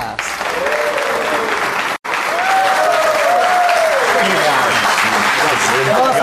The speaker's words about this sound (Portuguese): Aplausos para os barbichas!